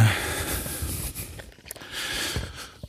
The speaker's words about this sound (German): äh, es geht gerade so richtig einen Berg hoch, deswegen schnaufe ich ein bisschen.